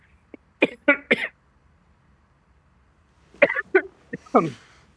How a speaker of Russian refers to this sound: Будьте здоровы. Чуть-чуть закашлялся